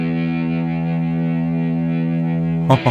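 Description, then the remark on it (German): A recorded, heavily distorted electric guitar track, imported and played back, holds one loud, buzzing chord, thick and steady with a dense, gritty tone, before a sudden brighter burst of strummed noise at the very end. “Er meint natürlich Electric Guitar.”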